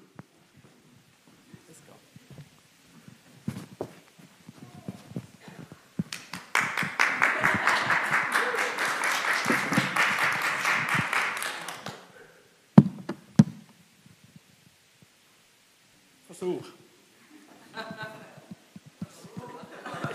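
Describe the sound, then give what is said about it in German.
A chair is dragged into place: a few scattered knocks, then about six seconds of steady scraping and rattling, and a sharp thump as it is set down. Faint voices come and go. “Jetzt brauche ich den Stuhl.”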